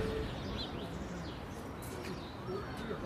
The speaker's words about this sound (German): Hier oben hört man eigentlich auch den Rest der Stadt vielleicht ein wenig. Vielleicht hören wir da einfach mal kurz rein, vielleicht hören wir mal kurz in den Hintergrund